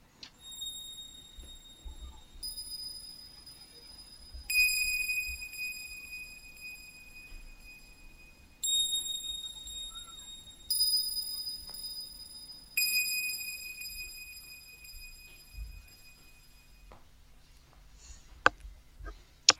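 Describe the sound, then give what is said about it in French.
A high, synthetic bell tone made on a wavetable synthesizer chimes every couple of seconds, with a high-pass filter cutting the bass, each strike ringing out with added reverb and delay echoes, over a faint low rumble, with no one speaking. “Ajoutez de la réverbération pour bien entendre la cloche et du retard au Et c'est tout, on écoute, ça s'appelle le plug.”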